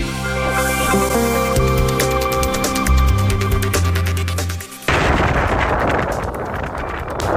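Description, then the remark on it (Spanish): A musical passage with sharp percussive hits cuts abruptly to the loud, steady roar of the gusts of a giant tornado touching down in Texas, recorded by a storm chaser, a dense rushing noise with crackling bursts like intense gunfire that continues to the end. “Parece el ruido de una intensa balacera, pero son las ráfagas de un gigantesco tornado que toca tierra en Texas.”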